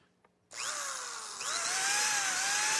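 A power drill whirs to life after a brief quiet, holding a loud, steady, high-pitched whine, then revs up a notch partway through and keeps running.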